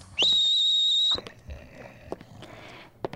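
A loud, shrill whistle blast holds steady for about a second, then cuts off, followed by quieter scattered clicks and rustling in the background.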